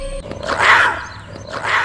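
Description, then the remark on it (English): A voice imitates a weak young lion's roar for the character Simba practicing his roar: two short, raspy growling bursts, the first slightly stronger, heard alone without other talk. “Simba rose an immature roar.”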